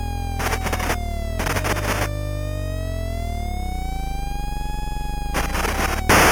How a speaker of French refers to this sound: le concepteur a eu la bonne idée de faire jouer une sirène de pompiers en boucle